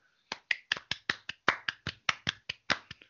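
Clapping on the radio programme Etiketa: a quick run of about fourteen sharp, crisp hand claps in a steady rhythm, loud and alone, with no voices.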